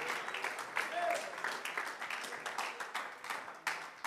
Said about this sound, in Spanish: Y si ese aplauso es para Él, por favor, abra sus labios y déle la gloria mientras le aplauden esta hora.